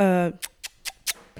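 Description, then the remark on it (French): A cat scratching litter in a litter box: after a brief voice, four or five quick, gritty scrapes follow in a steady rhythm, moderately loud. “j'ai fait qu'il sorte vite parce que sinon il peut rester 30 minutes dans sa litière.”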